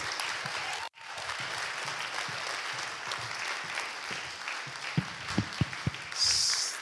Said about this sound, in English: Thanks. round of applause.